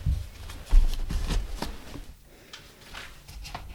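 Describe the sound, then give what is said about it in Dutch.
Continuous rustling and crinkling of paper posters being taken from boxes, handled and shuffled, with soft scraping and brief louder flaps, no voices. “Zullen we misschien een paar erbij pakken? Tof, ja, leuk. We hebben gewoon wat dozen gepakt.”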